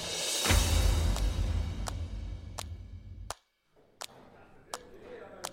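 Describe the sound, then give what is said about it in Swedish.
Construction noise from renovation work, heard from a hotel corridor: a heavy rumbling drone that cuts off abruptly, with sharp knocks repeating at a steady pace, roughly every second, throughout. “Där de har någon ombyggnation borta. Ja, ja. och det är inte alls bra för vårt ljud.”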